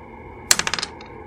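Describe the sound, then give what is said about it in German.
A die is rolled and clatters across a hard surface, landing on a six: a quick burst of about six sharp, bright clicks that rattle and fade within half a second, then one faint final tap, alone. “Er würfelt eine 6.”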